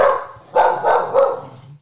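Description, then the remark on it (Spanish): A female dog that is kept shut in barks a few times in quick succession, loud, the barks rough and slightly frantic, with no one speaking. “Miren, escuchen su ladrido de loca, perra loca.”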